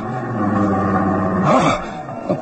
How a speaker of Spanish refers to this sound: No, no, ahora se oyó más claramente. Sí, sí fue un, un gruñido. Una fiera está allí, ahí entre aquellos arbustos, acechando.